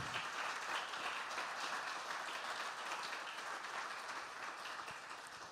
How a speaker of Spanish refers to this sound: Yo quiero que le den un aplauso al Señor, de la gloria a Él, por esa bendición que es nuestra congregación.